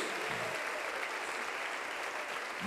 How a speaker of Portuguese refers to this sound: Aplaude ao Rei dos Reis e ao Senhor dos Senhores.